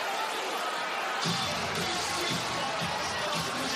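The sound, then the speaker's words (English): A stunned basketball crowd at the Toyota Center murmurs and buzzes steadily during a Rockets timeout in the fourth quarter, a dense wash of many voices with no single speaker standing out, swelling slightly after the first second. “A stunned Toyota Center crowd has watched a seven-point fourth-quarter lead turn into a six-point deficit.”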